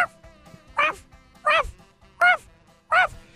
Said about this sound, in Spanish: Y en eso que comienza a ladrar un perro.